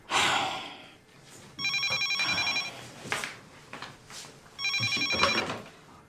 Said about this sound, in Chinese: 啊，哎，接一下电话。 我干活呢，没看着吗？你接呗。 肯定是谢广坤电话，你你接吧。